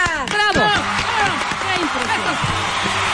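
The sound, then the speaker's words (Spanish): Steady applause fills the background as a guest is welcomed in a studio, a dense crackle of many hands clapping together, with voices rising and talking over it throughout. “Esos aplausos me gustan ¿Ya viste qué bonito?”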